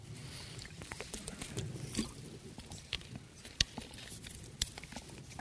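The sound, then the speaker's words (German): Someone takes a sip of water, with small wet clicks, a soft swallow and faint liquid sounds scattered over a few quiet seconds, with no talking. “Ja, erlaubt mir, dass ich noch vom Wasser einen Schluck nehme, nicht vom Zorn.”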